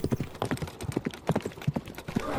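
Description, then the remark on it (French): The hooves of a ridden horse clip-clop in a steady, brisk rhythm, each strike sharp, repeating quickly over a couple of seconds with no voices. “Au bout d'une heure à cheval, elles découvrirent alors peu à peu un lieu sombre et inquiétant.”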